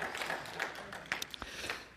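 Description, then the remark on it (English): An audience in a church claps together, a dense, steady patter of many hands with a few sharper individual claps standing out, lasting about two seconds at a moderate level with no voices. “You lead that clap.”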